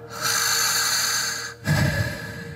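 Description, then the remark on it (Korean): A long, airy exhale from a voice, pushed out as an unvoiced breath, then a brief pause and a second, rougher breath with more low-end rasp, demonstrating the divine name Yahweh spoken with lips apart and tongue off the palate, close to the sound of breathing. “그렇게 숨소리와 가장 가까운 게 야외라는 거래요.”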